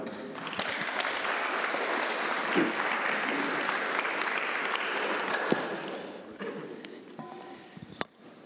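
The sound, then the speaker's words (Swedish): A crowd applauds steadily with dense, continuous clapping that holds strong for several seconds, then thins and fades toward the end, leaving a few scattered claps. “Ge en applåd va?”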